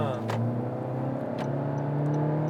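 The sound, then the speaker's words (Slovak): A car engine with 134 kW (182 hp) and a CVT gearbox revs up loud, its deep droning hum shifting in pitch as it climbs, with a couple of brief sharp clicks over the steady roar. “Ale má aj dobrý zvuk.”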